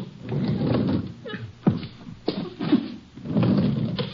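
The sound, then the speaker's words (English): A heavy sliding parlor door is opened, rumbling along its track, bumping and thudding a few times midway, then rolling again, with no one speaking. “Parlor's here. Sliding door. I'll open it.”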